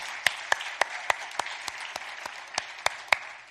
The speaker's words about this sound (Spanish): Si es para el Señor, hazlo fuerte el aplauso.